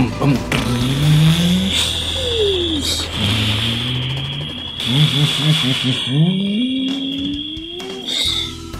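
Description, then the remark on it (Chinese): A black motorbike's engine revs several times in rising, falling bursts over a constant high whine, then roars and pulls away. No talking. “炭猪狼啊，快速骑着猪猪奥多拜出发！”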